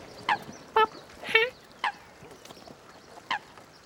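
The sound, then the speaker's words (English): Short, nasal tooting calls from coots, black freshwater wetland birds, about five calls at irregular intervals, one a quick doubled burst, clear over a quiet outdoor background in a swamp in the southwest corner of Western Australia. “Mm, I love that tooting little sound they make.”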